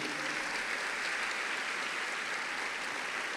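An audience applauds the name of Jesus together in a dense, steady wash of clapping that fills the whole stretch, loud and continuous with no voices standing out.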